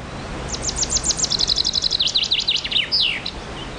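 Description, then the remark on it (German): An imitated chaffinch song, demonstrated as a memory aid for learning the call: a rapid series of high, bright chirps that speeds into a trill, then ends in a quick descending flourish, heard alone with no talking. “So kann man sich beispielsweise den Ruf vom Buchfinken einprägen.”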